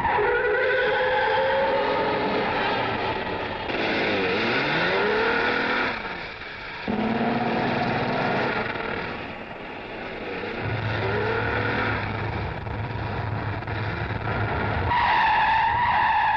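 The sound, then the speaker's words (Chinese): A car chase in which a police car pursues a white taxi: engines roar and rev while tires screech and skid repeatedly, with rising and falling whines over a steady loud rumble that briefly drops out midway. No one speaks. “这是一辆警车，正紧追着一辆白色的出租车疾驶而来。”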